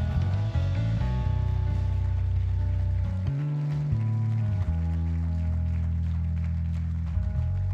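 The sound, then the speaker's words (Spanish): Steady crowd applause for the presence of God, a dense wash of clapping that runs the whole time, mixed with loud sustained keyboard chords and low bass notes underneath. “Alguien aplauda la presencia de Dios.”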